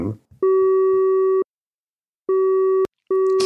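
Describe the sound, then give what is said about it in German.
A steady electronic telephone tone sounds in long beeps with gaps, one ending abruptly, as a call is placed to a call-center worker; a brief voice fragment precedes it. “Und da rufen wir jetzt mal an und fragen mal, wie es ihm 2020 ergangen ist. So, Telefon, was ist das hier?”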